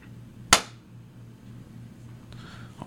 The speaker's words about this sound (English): I'm just gonna clap so I could cut it.